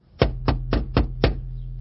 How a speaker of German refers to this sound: Das erste, was ich hörte, war ein Kreischen, gefolgt von etwas, das sich anhörte, als hämmerte jemand gegen eine Tür.